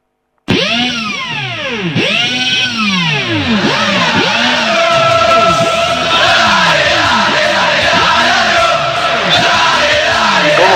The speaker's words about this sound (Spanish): se extraña ese cantito, ¿no? Y cuánto vamos a tener que esperar para la gente en la cancha. Se extraña demasiado, se extraña demasiado.